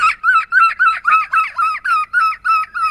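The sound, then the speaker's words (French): A person imitates a Roman seagull, letting out about nine loud, shrill, nasal cries in a quick, steady rhythm, each a short wavering squawk with no other talk. “D'imitation de mouette romaine.”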